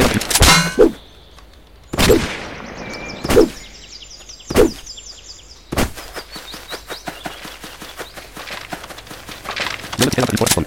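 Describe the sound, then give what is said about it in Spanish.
A video game shop chime: bright, high tinkling tones ring over a run of loud metallic clangs about every second, then a rapid patter of clicks and taps fills the end. “Vale, este sonido es la tienda.”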